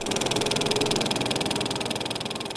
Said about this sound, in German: So klingt der analoge Filmprojektor bei den Bonner Stummfilmtagen.